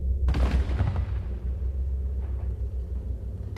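A single heavy cannon blast erupts sharply, then rolls into a long, deep rumbling decay that lingers for several seconds with no voices present.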